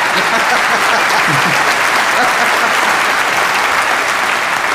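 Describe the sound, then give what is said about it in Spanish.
A studio audience applauds steadily, a dense, even wash of clapping that stays loud throughout with no voices rising above it. “Y entonces quedamos así, cuando ustedes quieran aplaudir, aplauden, y si no, no aplauden.”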